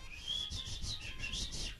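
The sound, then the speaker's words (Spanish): A voice imitates the whistle-like falsetto speech of people from Tlayacapan, squeaking in a shrill falsetto with about six quick, high-pitched pulses in a row, moderately loud over a faint low rumble. “No hablan con su voz normal, hablan como con, un, con una voz de silbato.”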